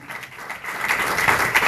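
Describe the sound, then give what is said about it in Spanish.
A crowd gives a strong round of applause to the Lord, a dense crackle of many hands clapping that starts moderately and swells louder after the first moment, holding steady and full with no voices on top. “Vamos, vamos, vamos, déle un fuerte aplauso al Señor.”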